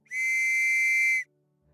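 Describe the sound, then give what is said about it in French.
A woman on a boat blows a small silver whistle, giving one loud, shrill, steady blast lasting about a second, alone, cutting off abruptly into near silence. “En même temps, la dame approcha de ses lèvres un petit sifflet en argent et elle en tira un son aigu.”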